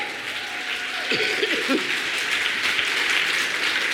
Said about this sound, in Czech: A jo, to si tleskáte sami.